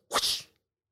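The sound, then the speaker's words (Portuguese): A voice imitates Spider-Man's web-shooting sound effect with one quick, breathy hiss: a sharp burst that fades within half a second, fairly loud, with no talking around it. “Por exemplo, para quem gosta de Spider-Man, o Spider-Man quando lança a teia, solta um som.”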